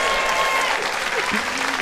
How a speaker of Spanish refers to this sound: le damos un aplauso desde aquí.